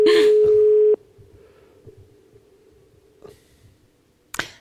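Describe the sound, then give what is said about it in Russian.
A phone call to Vitaly Nikolaevich Matveychuk fails to connect: a loud, steady telephone tone sounds for about a second and cuts off abruptly, leaving a faint lingering hum and soft breathy noises before a sharp click near the end. “Я сожалею, Виталий Николаевич Матвейчук, но мы попробуем как-то попозже, может быть, еще дозвониться и пораспрашивать, а чего это он вдруг, да?”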